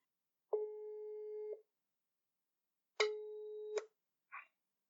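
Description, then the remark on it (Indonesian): A telephone ringback tone sounds twice, each a steady, fairly loud buzzing beep about a second long with a pause between, followed by a brief crackle as the line picks up. No one speaks. “Mari kita telepon.”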